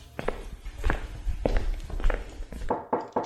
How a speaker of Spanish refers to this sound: Abren la puerta desde afuera y María sale.